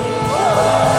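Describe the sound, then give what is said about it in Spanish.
An audience shouting and cheering for joy, a dense, loud burst of many voices whooping and yelling together for about a second. “Da gritos de júbilo.”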